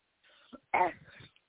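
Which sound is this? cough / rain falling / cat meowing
cough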